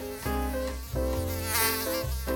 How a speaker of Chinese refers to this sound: 哎呦，怎么有苍蝇在旁边那么飞来飞去，好吵哦！